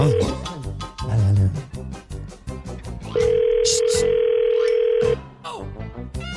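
A phone call to an ice-pop seller for the 'La Enchufada' segment connecting: a couple of short dialing beeps, then a steady, loud ringback tone lasting about two seconds, with voices and background sound before and after it.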